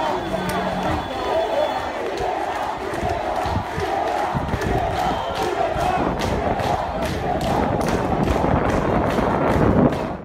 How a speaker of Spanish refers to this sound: El pueblo está gritando libertad.